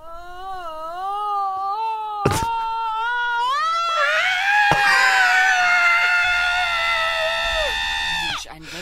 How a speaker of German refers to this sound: Ja, aber dieses Schreien. Ich liebe diesen Ich finde das auch so lustig.